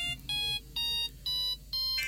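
A telephone rings with an electronic tone in four short, even bursts separated by brief pauses. The ring is bright, high and steady, with no voices over it.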